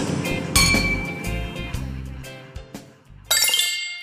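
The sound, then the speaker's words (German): Glasses clink together in a toast, several bright ringing taps, with a louder burst of clinking near the end and a faint murmur of background activity. “Ah, ich glaube, ich bin im Paradies. Ich auch. Prost.”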